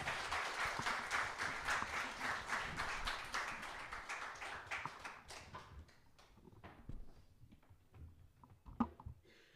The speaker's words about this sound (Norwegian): Tusen takk, og jeg syns alle skal få en applaus. Yes, det er bra.